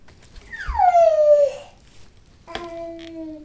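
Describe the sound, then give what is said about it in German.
A baby lying in a baby bouncer babbles repeated syllables such as 'papapa', one long vocal sound sliding from high to low pitch, followed after a short pause by a steadier, sustained voiced sound. “Und jetzt seit heute neu das P, also Papapa,”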